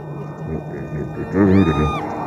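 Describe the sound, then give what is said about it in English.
A single drawn-out creak of a door swinging open bends up and then down in pitch over about half a second. It is fairly loud, over a low steady hum. “Opening the door.”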